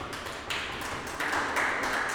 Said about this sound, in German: Ach nee, wir wollten noch klatschen. Na, ne? ist zu spät. Ihr könnt noch klatschen, wenn ihr wollt.